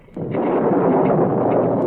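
A sudden, loud crash of thunder breaks in and rolls on as a heavy, continuous, powerful rumble, with no voices; lightning and thunder with no rain.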